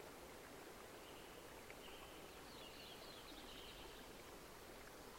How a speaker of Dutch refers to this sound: Je hoort de vogels fluiten. Misschien omdat het lente is.